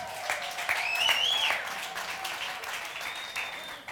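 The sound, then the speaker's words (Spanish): An audience bursts into applause for those among them aged 43 to 56, a dense wash of many hands clapping at once, loud and sustained before easing off slightly, with faint whistles rising above it. “Levánteme la mano fuerte, el aplauso para ellos.”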